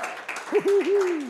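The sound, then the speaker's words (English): An audience in Charters Towers applauds in the morning in a steady wash of clapping, and a single voice rises over it with a long sustained call partway through. “And I just love if you would just give our podcast family the biggest round of applause here this morning.”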